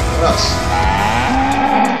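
A cow lets out a loud, drawn-out moo, a single low bellow that holds steady and rises slightly in pitch before fading at the end.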